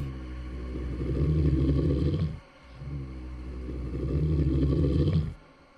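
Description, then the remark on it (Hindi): A huge beast panting in two long, heavy breaths, each a deep, rough rumble that swells loudly and then cuts off, with a brief gap between them and no talking; the strange noises come from the floor below and echo through the whole house. “जैसे कोई विशाल का जानवर हाँफ रहा हो उसकी वो आवाज़ पूरे घर में गूंज रही थी”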